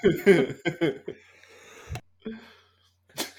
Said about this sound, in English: He's he's dying. He's coughing. He's, he's muted over there.